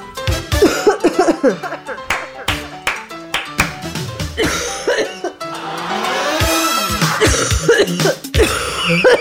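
A woman coughs repeatedly in loud, harsh bursts, with throat clearing between fits and some brief vocal sounds mixed in.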